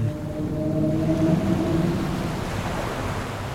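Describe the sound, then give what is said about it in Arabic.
Pygmy sperm whale vocalization: low, drawn-out tonal moans with layered harmonics over a steady underwater rumble and hiss, fading out after about two seconds. “صوت العنبر القزم”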